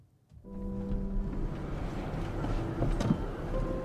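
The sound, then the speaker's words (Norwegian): The engine of a parked pickup truck idles steadily with a low, continuous rumble and faint tonal hum, starting abruptly after a brief quiet moment and holding at a constant level throughout, the driver not switching it off. “ikke slukker motoren på pickupen”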